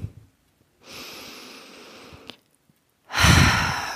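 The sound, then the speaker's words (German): A long, steady breath drawn in, a short pause, then a louder, fuller exhale pushed out through an open mouth like a sigh, during a guided breathing exercise. Clear, with no talking. “Wir atmen wieder ein”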